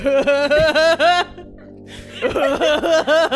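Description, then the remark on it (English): A voice does an exaggerated imitation of Seth Rogen's distinctive laugh: a run of loud, rhythmic, pulsing bursts, a brief pause, then a second burst of the same chuckling laughter, clear. “Do you want to hear my Seth Rogen laugh impression?”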